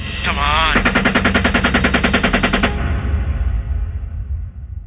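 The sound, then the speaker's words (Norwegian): A loud, rapid burst of heavy automatic gunfire from a helicopter shooting at people rattles off about twenty evenly spaced shots over two seconds, then stops, leaving a low rumbling drone in the background. “Videre så ser man personer som beveger seg, og helikopteret skyter de her personene med kraftige våpen.”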